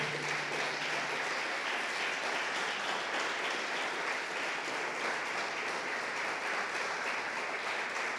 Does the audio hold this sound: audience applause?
yes